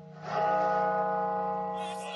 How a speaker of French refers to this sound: Dans la capitale, l'hommage aux disparus. Les cloches de la cathédrale de Washington sonnent un millier de fois.